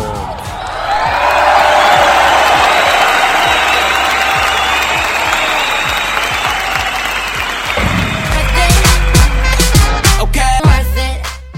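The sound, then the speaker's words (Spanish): A crowd bursts into loud, sustained applause with cheering and whoops, dense clapping holding steady for several seconds before thinning into scattered claps and shouts toward the end. “Todo eso merece un gran aplauso.”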